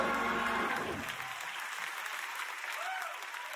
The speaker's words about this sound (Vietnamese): Nếu bạn biết rằng Đức Chúa Trời có thể làm những việc vĩ đại thông qua bạn khi bạn tin cậy Ngài, các bạn vỗ tay nhẹ quá, hãy dâng Ngài sự ngợi khen thật sự.